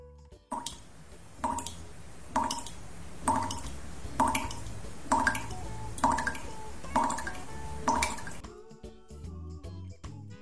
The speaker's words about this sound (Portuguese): Primeiro, torneira pingando, esse me deixa doido.